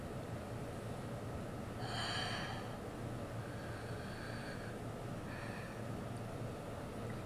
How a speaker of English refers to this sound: Breathing! Did you know that we are always breathing all the time? even though we are breathing all the time, we usually don't notice it.